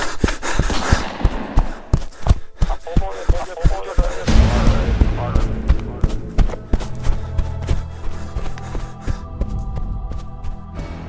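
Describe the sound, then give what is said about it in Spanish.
A loud shotgun blast bursts out amid a chaotic stretch of rapid, heavy thumps and pounding impacts, followed by a lingering, droning ring that carries on under scattered knocks. “En ese momento escuchó la explosión final, el escopetazo”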